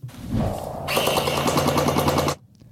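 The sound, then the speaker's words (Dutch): A DJI RoboMaster S1 robot fires its gel-bead blaster in a rapid burst of shots, a dense rattling stream of pops after a brief mechanical whir, fairly loud, ending abruptly. “Het was het geluid van een schietende DJI RoboMaster S1”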